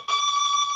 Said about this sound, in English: sorry, that's my doorbell.